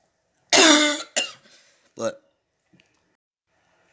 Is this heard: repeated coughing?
yes